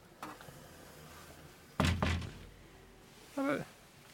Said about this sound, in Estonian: teeme ukse lahti.